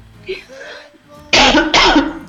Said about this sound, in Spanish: Ay, el limoncito me da tos. que no sea coronavirus.